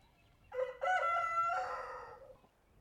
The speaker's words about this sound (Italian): C'era una volta in una fattoria lontana lontana, un giovane gallo che ogni mattina svegliava il pollaio col suo ec ec ec.